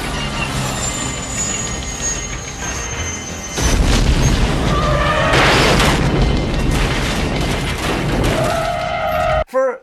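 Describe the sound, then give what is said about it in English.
In a Cannon film scene, after shots are fired at a helicopter, a sudden loud explosion bursts in a few seconds in as it crashes into the road in a huge fireball, followed by a sustained crashing roar, metallic screeching and rumbling debris over a steady mechanical background, ending abruptly. “You, you just see some smoke, and before you know it, a huge fireball as it crashes into the road.”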